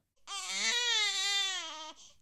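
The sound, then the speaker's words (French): A baby lets out one sustained, strained wail lasting under two seconds, loud, with a bright harmonic cry that wavers slightly before cutting off. “Ah, mais qu'est-ce que j'entends On dirait que bébé a faim.”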